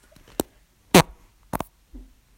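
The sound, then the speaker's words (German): Farts from two people: a few short, sharp, noisy bursts spaced about half a second apart, fairly loud, with a softer low rumble trailing at the end and no talking. “Digga, wir haben gerade den gleichen Furz gemacht.”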